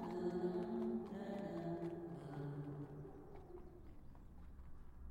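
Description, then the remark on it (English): The hooves of a horse pulling a carriage clip-clop at a steady walking pace, fairly faint, mixed under a sustained, humming musical backdrop that gradually fades toward the end. “loaded Hannah's three trunks onto a horse drawn carriage and she left Union Street forever”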